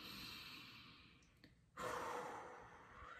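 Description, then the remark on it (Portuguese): A slow, deep diaphragmatic breath: a long airy inhale, a brief pause, then a fuller, louder exhale that trails off. No one speaks. “A respiração diafragmática, né? Que é, a, é uma respiração lenta né? e profunda”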